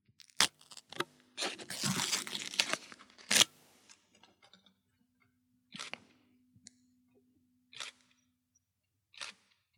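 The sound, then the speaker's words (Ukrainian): A package is partly opened to let its opening sound be heard: packaging is torn open with a dense burst of crinkling and ripping, followed by a few sharp, isolated crackles spaced out in otherwise quiet surroundings. No one speaks. “Я просто, щоб ви почули цей звук відкривання, але відкривати ASMR.”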